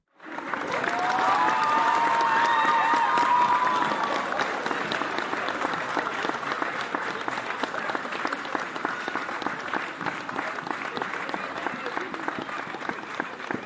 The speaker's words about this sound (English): That's a long clap. Holy cow. That's like, that was like full almost 20 seconds of clapping. That's crazy.